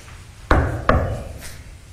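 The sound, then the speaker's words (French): Two sharp, fairly loud knocks, about half a second apart, each with a short ringing decay and nothing else following: a person knocking twice as a signal, asking for two knocks in reply. “Si je cogne deux fois comme ça”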